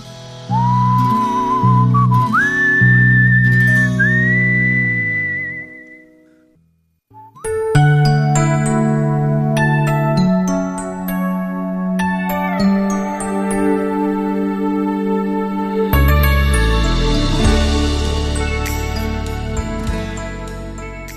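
A bright whistled melody opens over a soft pop backing, then after a brief pause the full band comes in with bell-like chimes and a steady groove, a listener-requested song played on a Korean radio show. No voices are heard.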